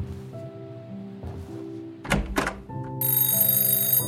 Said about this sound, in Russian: Через несколько дней поздно ночью у вас в доме раздается телефонный звонок. Муж поднимает трубку.